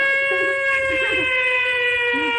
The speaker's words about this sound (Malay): Ini bunyi siren lah. Bunyi bomba. Bomba nanti orang-orang bomba tu abang-abang bomba dia tahu. Oh dia kata ada kebakaran.